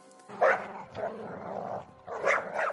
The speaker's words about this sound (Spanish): No le hizo falta llamar a la puerta, puesto que un perro empezó a ladrar frenéticamente.